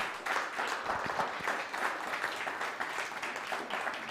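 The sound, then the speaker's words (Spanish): A crowd applauds steadily as a strong round of applause to the Almighty, with dense overlapping claps forming a continuous wash of sound at moderate volume throughout, many people clapping together. “dar un fuerte aplauso al Todopoderoso.”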